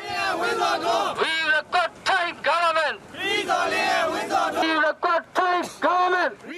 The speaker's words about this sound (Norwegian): Flere hundre demonstranter krever rettferdighet for de to dødsdomte og roper slagord mot myndighetene i nabolandet Thailand.